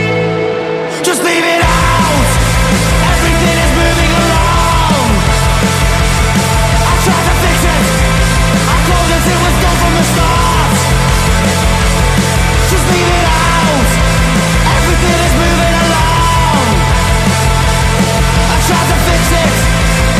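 A song by a rock band from Liverpool kicks in after a brief moment of quiet and plays loud and dense throughout, with heavy bass, thick guitars and driving drums filling the mix.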